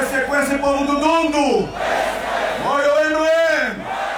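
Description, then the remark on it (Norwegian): A large crowd at a campaign rally in Dundo, a town in far northern Angola by the Congo border, welcoming presidential candidate Adalberto Costa Jr., chants and roars in unison: two long rising-and-falling collective shouts with many voices layered, loud throughout with dense cheering between the swells. “I Dundo, en by langt nord i Angola, rett ved grensa til Kongo, blir et svært publikum hausa opp.”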